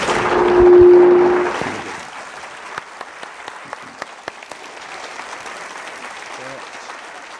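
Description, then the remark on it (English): An audience at an author book event bursts into loud applause for the author. It peaks in the first couple of seconds, then thins out into scattered individual claps over a low, steady hubbub. “I want you all to thank him for writing this book and for being who he is, and come and buy the book next door.”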